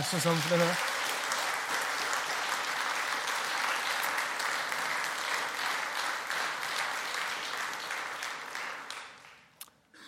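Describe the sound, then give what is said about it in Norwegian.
Sustained crowd applause for a speaker, a dense wash of many hands clapping at steady loudness for several seconds before tapering off, with a brief voice heard at the very start. “Skal vi gi han en applaus?”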